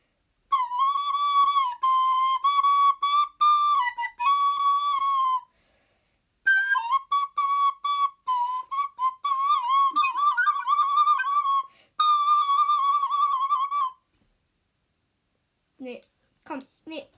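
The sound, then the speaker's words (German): A flute plays a wavering, snake-charmer style melody of sustained high notes with quick trills and bends, in phrases separated by short pauses, then a few faint taps at the end. “Ich spiele jetzt mal Schlangenbeschwörermusik.”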